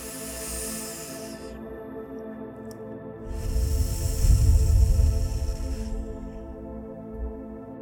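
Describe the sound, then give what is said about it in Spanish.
Slow, deep breathing exercise: a brief airy inhale through the nose, a pause, then a longer, louder whooshing exhale through the mouth, with a soft sustained musical drone underneath and no talking. “Siente cómo te vas centrando a través de tu respiración”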